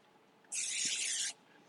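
A single short burst of aerosol vegetable cooking spray, a steady bright hiss lasting under a second and fairly loud, with no talking. The spray is aimed over a sink onto diced potatoes on a paper plate.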